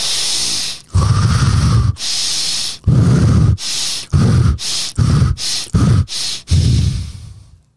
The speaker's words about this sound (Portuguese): É provado já cientificamente que uma, um tipo de respiração que a gente faz rápido, tipo.